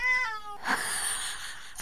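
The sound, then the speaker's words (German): A cat meows insistently, a drawn-out harmonic cry that rises and then breaks into a strained, noisy wail, moderately loud with no talking. “Die hört nicht auf. Ich weiß auch nicht, was die will von mir. Also kannst du vielleicht mal einen Katzenpsychologe bei mir melden?”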